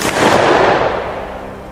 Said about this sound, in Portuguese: Você ouviu o tiro, você viu o impacto do tiro, você viu que ele balançou um pouco para trás.